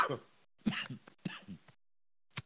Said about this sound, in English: There's the coughing.